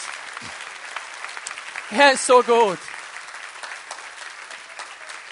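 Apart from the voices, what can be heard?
audience applause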